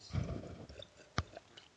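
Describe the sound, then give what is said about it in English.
Someone sips miso soup: a soft, wet slurp followed by a few small clicks and swallows, all quiet with no talking. “I'm drink- I'm sipping on some miso soup.”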